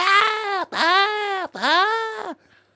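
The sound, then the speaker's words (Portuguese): A voice imitates a child screaming and crying in three loud, drawn-out wails with brief breaks between them, each rising and falling in pitch, then fading to quiet. “Começa um puto ao teu lado a berrar.”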